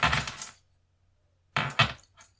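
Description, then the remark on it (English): Keys chink and jingle in two short bursts separated by a second of silence, the second burst trailing off with a faint extra clink. No one speaks. “Or keys. Chink, chink the noise goes right through you and your head pounds and the pressure builds up as if you've got a steamer inside your head”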